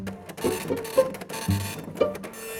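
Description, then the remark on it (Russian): A dot matrix printer rattles away, its buzzing, chattering print head sweeping in short bursts with a few sharper clicks as it steps along the line, its small pins striking the paper to leave dots that form the letters. “Вторая проблема была в том, что в начале 80-х чаще всего использовали матричные принтеры.”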